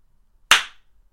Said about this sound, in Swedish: Klapp kommer nu. Vet fan om det hördes mycket.